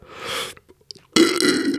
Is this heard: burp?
yes